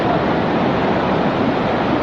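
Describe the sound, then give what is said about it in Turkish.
Loud, steady roar of rushing floodwater from a stream overflowing after a heavy downpour in Ulubağ neighborhood, Uzundere district, Erzurum, Turkey; a dense continuous wash of turbulent water with no pauses and no voices. “Mahalle içerisindeki dere yağış sonrası taştı bazı yollarda göçükler meydana gelirken selin etkisiyle ağaçlar devrildi.”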